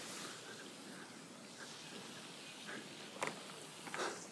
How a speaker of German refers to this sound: So, jetzt hört man sie auch schon wieder hier, die Wasserfontänen.